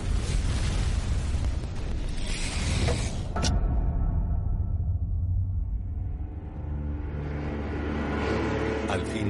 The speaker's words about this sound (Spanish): El show recibió un impacto en la proa, que detonó el almacén delantero y desprendió la proa por completo. Hubo un estruendo enorme, una explosión que casi hacía que el ataque al Arizona no pareciese gran cosa.